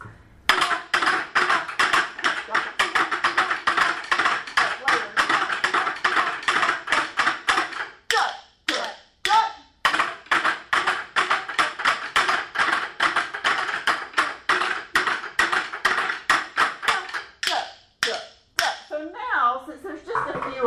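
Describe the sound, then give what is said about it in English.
A steady, rhythmic pattern of sharp taps on the backs of chairs, playing the A section of a piece, repeated quickly across many beats by several players at once, with brief pauses and a few voices near the end. “And now we're going to go back to the A on the back of the chairs.”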